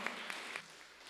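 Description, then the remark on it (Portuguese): An audience applauding: a steady, dense patter of many hands clapping at once, with a few sharper claps standing out, fairly soft and continuous through the whole brief moment. “Aleluia, isso mesmo, aplauda ao Senhor.”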